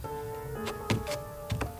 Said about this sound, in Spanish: Se para de forma enérgica y comienza a subir al altillo con cuidado. La puerta está cerrada y debe forzarlo un poco hasta que consiga abrirla